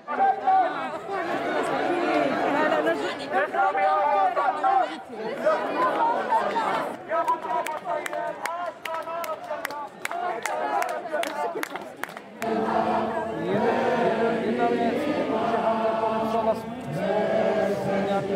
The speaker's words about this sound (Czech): V pražských chodkových sadech se dnes odpoledne sešli lidé na podporu Palestiny a Izraele na druhé straně. Policie oba tábory důsledně oddělila a zatím se nestály žádný střety. Pouze se zpívají písně a skanduje se a jak můžete slyšet, bučí.